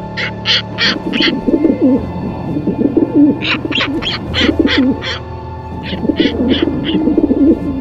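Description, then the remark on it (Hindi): Birds calling on a rooftop: a steady low cooing and warbling runs throughout, broken by three loud bursts of quick, rhythmic high chirps. No one speaks. “राजा की मां दंदनाती हुई छत की ओर दौड़ी कि जो पापड़ और मसाले वगैरह सूखने को डाले थे उनको ये पंछी खराब न करते”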